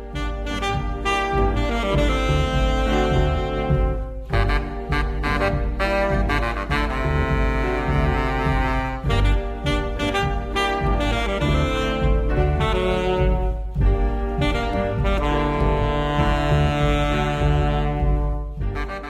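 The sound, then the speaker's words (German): A well-known instrumental melody plays loudly and steadily throughout, rich harmonic tones over a sustained low accompaniment, with brief dips between phrases and no voices. “aber ich spiele mal eine Melodie vor, die ist total bekannt.”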